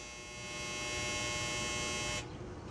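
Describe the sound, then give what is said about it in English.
A clothes dryer runs outdoors with a steady, droning mechanical hum close by, its whirring constant until the higher part of the noise abruptly cuts off near the end as the dryer stops, leaving a low rumble. “And if you can't tell, I'm sitting by a dryer because there went the dryer.”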